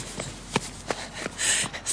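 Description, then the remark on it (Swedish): Quick, evenly spaced footfalls of a person running thud by, about five impacts in two seconds, with bursts of hissy breath or wind noise between steps. “springer.”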